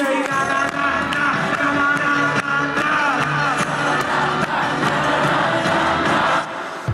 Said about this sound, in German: Handyaufnahmen im Internet zeigen die Live-Premiere des Songs. An den Stellen, an denen in der finalen Version der Refrain kommt, hört man da noch einen La La La Mitsing-Part.